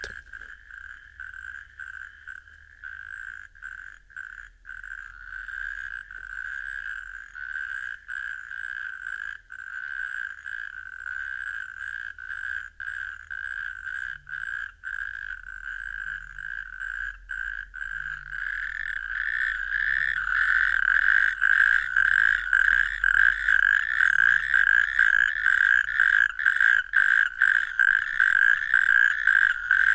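A very rare natterjack toad near Nõva in northern Estonia: its loud, rapid rattling trill dominates throughout, a continuous churring call that swells louder in the second half, with faint low knocks in the background.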